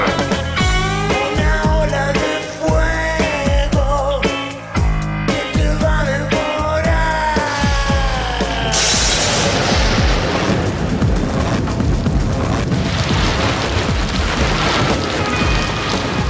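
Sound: thunderstorm with rumbling thunder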